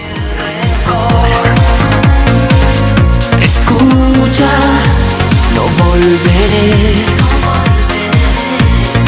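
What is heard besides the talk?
song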